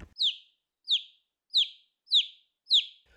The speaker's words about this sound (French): À l'entrée de l'expo, vous pourrez écouter la forêt. L'artiste Fernand Desroussins a enregistré le son de la forêt pour nous restituer, ainsi que son chant, ou plutôt son chorus, c'est un cœur d'oiseau.